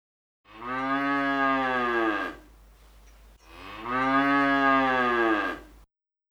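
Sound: cow mooing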